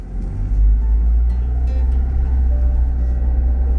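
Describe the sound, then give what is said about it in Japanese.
A steady, heavy low-end engine rumble fills the inside of a moving car, droning continuously with faint road noise and no one speaking. “これは一人でほんまに車内で喋ってるんですけどね”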